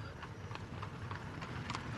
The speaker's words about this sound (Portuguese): como você pretende acompanhar quatro cavalos de guerra correndo a velocidade total?